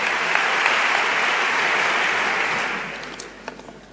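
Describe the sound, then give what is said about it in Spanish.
A large crowd gives an ovation to the speaker of a Holy Week proclamation (pregón) for the Santo Entierro Grande, a dense wash of steady clapping that holds strong before gradually thinning and fading out, with a few scattered claps lingering at the end. “Toma agua el pregonero, continúa Enrique Casella después de esta primera ovación.”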